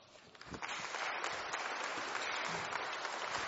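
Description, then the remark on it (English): Applause from an audience swells quickly and holds steady as a dense, continuous patter of many hands clapping, fairly loud, with no talking over it, welcoming a guest coming up to the stage. “So, can we give a warm welcome in conclusion today for my friend”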